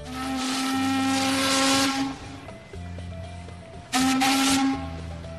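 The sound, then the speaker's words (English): A ship's horn whistle sounds twice, a long loud harmonic blast around two seconds, then a second blast after a pause, with steady engine rumble and hiss underneath. “or we can take the boat, either from Spain or somewhere else.”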